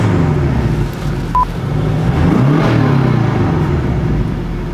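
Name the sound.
car braking abruptly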